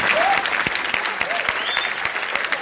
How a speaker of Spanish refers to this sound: Entonces un aplauso si les gustó. Así que muchos aplausos ahora.